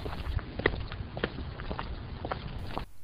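Footsteps of two people walking at a steady pace to their car on the street after a football match, a series of distinct steps over a low background rumble, ending abruptly after about three seconds.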